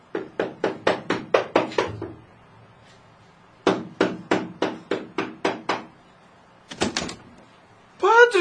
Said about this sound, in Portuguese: Com o coração palpitando descompassado, bateu à porta.